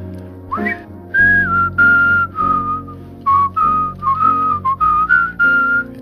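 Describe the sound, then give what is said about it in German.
Two people whistle a melody together: clear whistling carries a simple tune in a series of held notes and short phrases, with a second, fainter whistled line joining in partway through. No one speaks. “Ich bin die Pfeife, ich fange dann an, die Oberpfeife, und dann pfeifst du vielleicht mit.”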